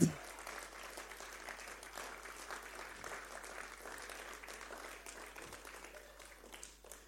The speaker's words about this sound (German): Das ist schön. Applaus ist immer so schnell fertig, oder? Aber jetzt muss ich arbeiten, auch noch für einen Applaus.